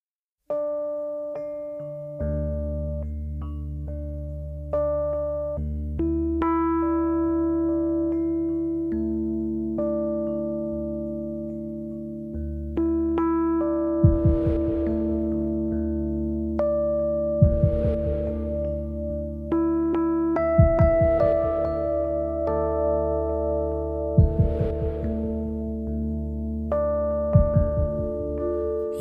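A pop rock song's instrumental opening: steady sustained piano or keyboard chords, then heavy drum hits land at a slow, regular beat about halfway through, with no singing yet.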